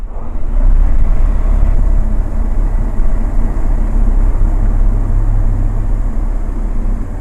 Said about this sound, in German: Sind wir in der Luft. Ganz ruhig gleitet das Flugzeug durch die Luft. Die Maschine braucht nur wenig Geschwindigkeit zum Abheben und Fliegen, erklärt der Pilot. Deshalb sei sie ideal zum Fotografieren.